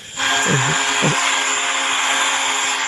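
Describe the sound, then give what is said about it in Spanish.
A vacuum cleaner sound effect from a relaxation app: the vacuum switches on and runs with a loud, steady whooshing roar and a high motor whine. Two brief swooping tones rise over it early on, then the drone continues unchanged. “Mira, ¿eh? hasta aspiradora.”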